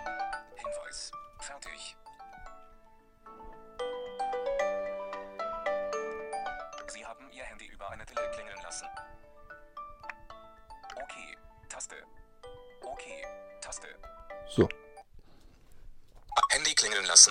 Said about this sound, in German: Das funktioniert sogar, wenn Ihr Handy stumm geschaltet ist. Haben Sie Ihr Handy verlegt? Lassen Sie es von Ihrer Tele ausklingeln.